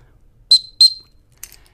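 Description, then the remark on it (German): Two short, piercing high-pitched blasts in quick succession on a dog recall whistle, used to teach a dog to come back, followed by a fainter brief burst, with no talking. “ist ein Pfiff, den ich im Privaten anwende, damit der Hund lernt, zu mir zu kommen, egal wann, egal wie.”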